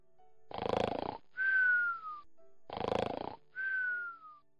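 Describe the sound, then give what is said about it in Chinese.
Two loud snores from Han Xin's army tent near dawn, each a harsh rattling inhale followed by a thin whistling exhale that slides downward in pitch, repeating at a steady rhythm with no talking. “天都快亮了，韩信的军帐里才传出了呼噜声。”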